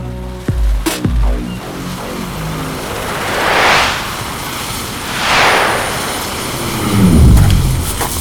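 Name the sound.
helicopter arriving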